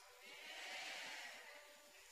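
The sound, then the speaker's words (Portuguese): Several voices join in a drawn-out, wavering imitation of a sheep's bleat, a single sustained 'baa' lasting about two seconds, fairly loud, with no other talk. “Essa ovelha, ela faz o quê? Não, o, o som dela, como que ela faz?”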